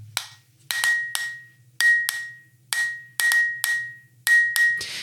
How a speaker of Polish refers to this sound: Mam przed sobą kubek y, z pewną ilością herbaty. Pyknę sobie w niego długopisem, puknę.